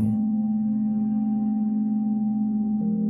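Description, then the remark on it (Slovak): Binaural tones: a steady, low sustained hum at two nearly identical pitches plays continuously and evenly for about three seconds, with no voices or other sounds. “V ľavom uchu budeš počúvať tón po frekvencii 234 Hz. V pravom uchu budeš počuť tón po frekvencii 230 Hz.”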